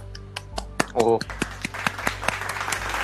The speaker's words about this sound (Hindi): उसके अराउंड डेढ़ सौ लिसनर्स हो गए हैं डेढ़ सौ प्लेस तो उसके लिए कॉन्ग्रेचुलेशन तालियां